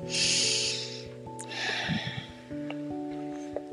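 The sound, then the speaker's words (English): A slow, deep breath drawn in and then let out, two long airy rushes, with soft sustained music tones humming underneath, during a guided breathing exercise with eyes closed. “Breathe in the energy of God and breathe out all those little negative things that come along and they nip at you while you're trying to quiet and still your mind.”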